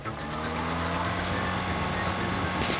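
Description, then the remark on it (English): A BMW's engine runs loud with a steady, continuous droning rumble and layered tonal hum as the car gains speed while being shot at, holding its strength for the whole few seconds with no voices. “Shots ring out, pinging every inch of the BMW, but it keeps on moving, gaining speed as it does.”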